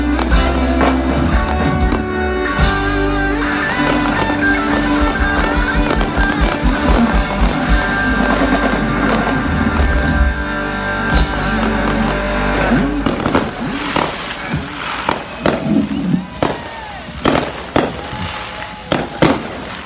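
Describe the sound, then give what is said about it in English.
Loud music plays and concludes at the end of an event, then gives way to a bright fireworks display, a volley of sharp, booming bursts popping irregularly, some overlapping in rapid crackling clusters. “The event ended with a bright fireworks display as … … concluded the music.”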